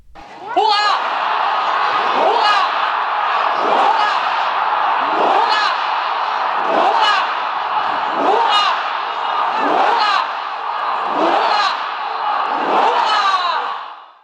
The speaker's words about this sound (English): … then led the crowd in a ninefold salute for His Majesty the King.